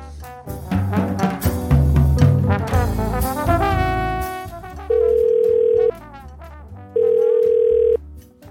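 A short burst of music gives way to a phone's ringback tone: two steady, evenly pitched beeps, each about a second long, separated by a pause, loud with no voices.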